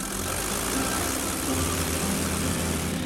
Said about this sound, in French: À 7h45, son avion, un Pothès 25, quitte le hangar.